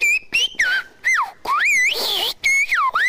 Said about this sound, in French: c'est un sifflement, donc une langue sifflée, qui s'est éteinte apparemment dans les fins des années 90